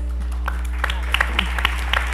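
Audience applause of scattered, irregular claps, sparse and moderately loud, over a steady low electrical hum, with no one speaking.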